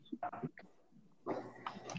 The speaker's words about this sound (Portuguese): Ouviram meu cachorro?